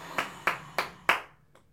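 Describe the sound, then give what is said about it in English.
An applause sound effect: four crisp hand claps land at a slow, steady pace, followed by a much fainter fifth one. It sounds like one person clapping sarcastically, with no talking. “Applause sound effect.”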